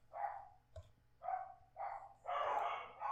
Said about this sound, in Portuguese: Os cachorros estão latindo, viu? Eu peço, eu peço desculpas de antemão.